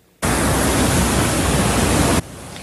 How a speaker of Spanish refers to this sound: Y lo pronosticado ocurrió, entre los vecindarios corrió un mar imparable de agua.